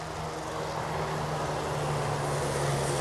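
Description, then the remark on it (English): A helicopter drones steadily overhead on a Thursday evening, its low engine hum and broad rushing noise holding fairly loud and constant for a few seconds, with no one speaking. “There's our every Thursday evening helicopter wave.”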